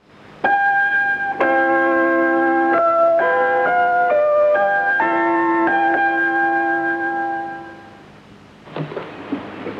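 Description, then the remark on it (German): A short chime-like melody of bell tones plays clearly and steadily for several seconds, the interval signal of a German international shortwave radio station, then fades out into a brief bit of faint background noise. “das Pausenzeichen der deutschen Welle, das aus Beethovens Fidelio entstammt”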